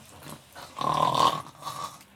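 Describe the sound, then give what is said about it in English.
A voice imitates a sleeping man's loud, rasping snore: one drawn-out, nasal snort lasting about half a second, followed by a softer trailing breath, with no other talk. “… fell asleep and was doing his snoring, which I'm sure you've heard”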